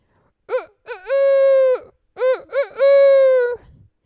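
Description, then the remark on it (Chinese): A voice imitates a hen clucking: two loud phrases, each with a couple of quick short notes followed by a long, drawn-out mid-pitched tone, with no other talk. “聪明的老先生说：“ 把你的母鸡带到屋子里。”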